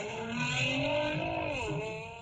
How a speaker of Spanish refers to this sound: Ah, permíteme, pero antes de continuar platicando, quería que escucharan el sonido del motor del Nissan GTR. A ver, suelta el sonido del motor del GTR, por favor.